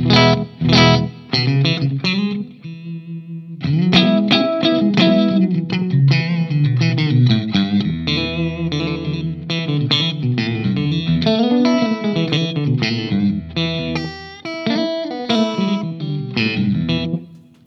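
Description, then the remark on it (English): An electric guitar plays a busy, melodic riff of quick notes with a brief pause early on, first in a clean tone and then with a thicker octave fuzz. No one speaks. “listen to the like the the guitar tone before before uh, yeah. Oct Octopus. Here it is clean.”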